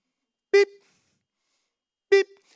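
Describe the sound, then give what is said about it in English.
Two short, bright electronic beeps from a fitness bleep test machine, about a second and a half apart, each clear and fairly loud against silence, with no talking. The test is run between two cones 30 meters apart. “It, it's, it's, it's basically two cones that are 30 meters apart, and then you play this machine, and it goes beep,”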